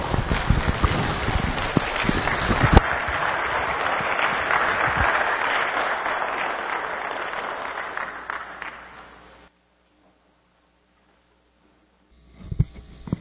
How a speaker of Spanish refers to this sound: queremos un fuerte abrazo, o aplauso para nuestro hermano